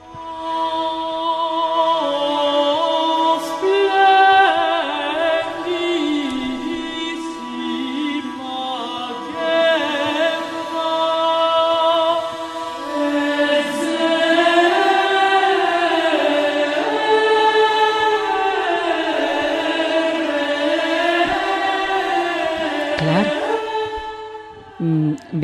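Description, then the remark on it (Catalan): Several women's voices sing a slow, flowing medieval chant from a sung liturgical drama in close unison, with long sustained notes and gently rising and falling melodic lines, steady and fairly loud throughout. “una de les seues obres més conegudes, que s'anomena Ordo Virtutum”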